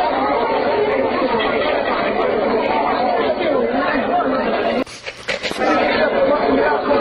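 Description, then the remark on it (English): A crowd of people perched on a wall at the Praetorium, the headquarters of Pontius Pilate, watching something and chattering in a steady, dense murmur of overlapping voices, briefly broken by a short gap and a few louder bursts before the babble resumes. “Note to self stumbled upon a crowd of folks perched on a wall. They're watching something.”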